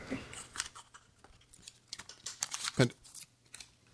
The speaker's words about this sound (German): Könnt könnt ihr das vielleicht nochmal kurz außer durch Schmatzen überbrücken?